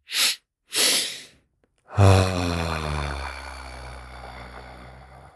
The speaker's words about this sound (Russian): Это такой паттерн, когда я два раза вдыхаю носом.